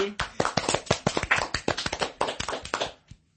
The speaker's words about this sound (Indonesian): Tepuk tangan dulu dong teman-teman, tepuk tangan. Kurang meriah, kurang meriah. Sekali lagi.